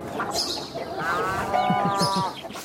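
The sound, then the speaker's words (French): A cow moos in a long, drawn-out low call on a farm, with faint farmyard background noise and some soft rustling around it. “À ah, l'ambiance, ah c'est on y est, on est, on est à la ferme.”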